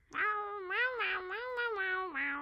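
A cat named Remy lets out one long, drawn-out meow that wavers up and down in pitch for about two seconds, fairly loud, with no other sounds around it.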